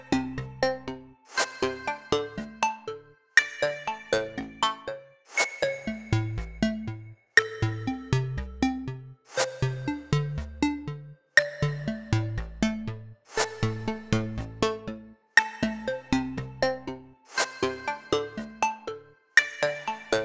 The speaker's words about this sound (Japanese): 途中で切れちゃいました。なんで途中で切れてしまったかというと、えー、電話がかかってきたからです。